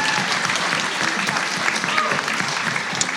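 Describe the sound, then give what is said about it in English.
Sustained applause from a sizable audience at a convention, for the presenters announcing the Forever Playland convention, a dense steady patter of many hands clapping at full volume throughout, with a faint murmur of voices mixed in. “How about a hand for them and for Forever Playland?”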